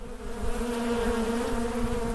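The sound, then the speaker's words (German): A swarm of bees buzzes in a dense, steady drone that holds at an even, fairly loud level throughout, with no voices. “Zieht ein Bienenschwarm aus, so wird er herrenlos, wenn nicht der Eigentümer ihn unverzüglich verfolgt oder wenn der Eigentümer die Verfolgung aufgibt.”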